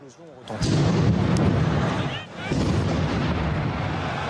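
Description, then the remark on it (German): Two loud, booming explosions about two seconds apart, from a series of attacks in Paris, heard in the TV broadcast of the France vs Germany football match, each leaving a broad rumbling roar that lingers over a noisy, crowd-like background. “Und in der TV-Übertragung, die Millionen Menschen am Fernseher gesehen haben, hörte man plötzlich Explosionen.”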